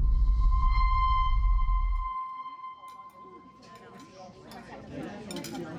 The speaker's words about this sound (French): Au Catalan, les plats défilent entre les mains des serveurs et les conversations vont bon train.